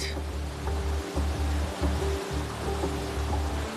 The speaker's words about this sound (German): Als erstes messen sie die Strömungsgeschwindigkeit des Wassers, das aus der Fischzuchtanlage zurück in die Eder fließt. Das Wasser kommt durch einen 1 Meter breiten Kanal und ist überraschend reißend.